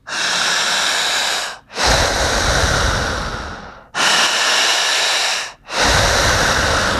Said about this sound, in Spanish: ok, vamos a respirar. ¿Listo? Crono. Empezamos a jalar el aire así. Uno, dos, tres.